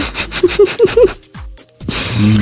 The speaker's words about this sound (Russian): когда он э, слишком активно дышит, то его микрофон начинает ловить звуки.